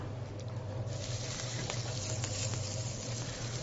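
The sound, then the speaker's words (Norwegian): Reindeer meat, rolled in salt and lemon, sizzles steadily in a hot frying pan with olive oil, a dense continuous crackle with a few sharper pops, fairly loud, with no voices. “Tilsetter så reinsdyret.”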